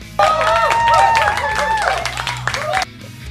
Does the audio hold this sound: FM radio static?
no